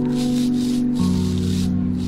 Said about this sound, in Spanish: Soy yo, que estoy cepillando la ropa.